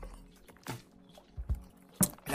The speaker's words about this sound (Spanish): Un poquito agua, gente, con vuestro permiso, no se molesten